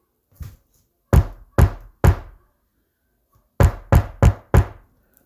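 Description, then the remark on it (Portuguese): Knocking on a door at night: a faint first tap, then three firm knocks, a pause, and four quicker knocks, loud with no voices. “mais batidas na porta.”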